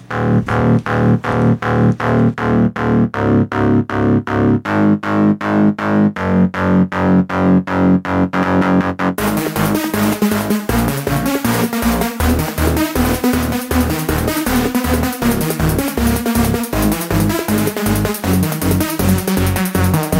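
A loud, driving techno track with a steady pounding beat and heavily distorted, effects-laden synths; about halfway through, the arrangement thickens into a denser, brighter wall of sound. No voices.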